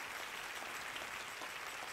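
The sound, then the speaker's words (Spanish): An audience applauds, a steady dense wash of many hands clapping at once, with no break and no voices standing out over it. “Si ese es el aplauso, déselo mejor al Señor.”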